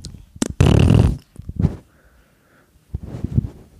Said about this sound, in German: Hätte man mir mal vorher gesagt, was ein Baby am Tag so furzt